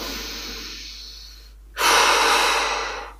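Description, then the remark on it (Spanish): Deliberate relaxation breathing: a long, airy inhale over a count of four that gradually fades, a brief pause, then a louder, forceful rush of breath out over a count of two. No one speaks. “O yo, por ejemplo, a una respiración que inspiro en cuatro y, y expiro en dos, porque eso me, me relaja, me baja las pulsaciones y cuando me pongo muy nerviosa, pues hago...”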